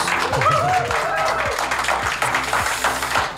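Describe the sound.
An audience applauds with a dense, steady wash of clapping that holds for several seconds, mixed with a few voices calling out and cheering over it.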